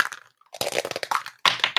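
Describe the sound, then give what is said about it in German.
Dice are rolled quickly, rattling and clattering across a hard surface in quick bursts of clicks, a short pause, then another rolling clatter with a few sharp taps at the end, fairly loud, with no talking. “Ja, mein Thema, äh, ich würfel noch für mich ganz schnell.”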